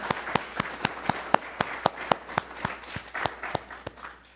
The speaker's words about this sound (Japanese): イエス様に拍手しましょうハレルヤ感謝します